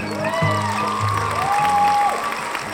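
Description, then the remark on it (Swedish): A crowd of people at the start of a gathering gives themselves a warm round of applause, clapping steadily for a few seconds, the dense applause joined by a few rising whistles and scattered cheers, fairly loud throughout. “Kan vi börja med att ge oss själva en eh, varm applåd?”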